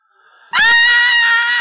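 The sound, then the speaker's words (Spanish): A single piercing scream, the third one, bursts in after a faint, quiet lead-in, loud, holding a shrill sustained pitch for over a second without letting up. “un tercer alarido me hace voltear para ver el cuerpo destazado de Hikari”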